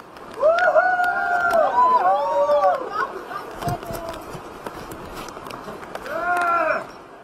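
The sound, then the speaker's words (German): A small group cheers after a successful world record attempt at the world's longest digital print, following hours of waiting in steady rain near freezing, overlapping voices whooping with rising and falling pitch in a burst at the start and another near the end, fairly subdued overall. “So klingt der Jubel nach einem geglückten Weltrekordversuch.”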